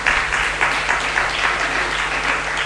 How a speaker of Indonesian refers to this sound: Berikan tepuk tangan untuk Yesus Tuhan.